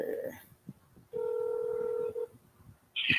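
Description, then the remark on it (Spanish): A phone call's ringing tone sounds as one steady electronic buzz lasting about a second, bracketed by brief dial tones and a sharp, higher beep at the end, over faint background noise. “Vamos a ver si contesta. Mm, está sonando, pero no, no suena.”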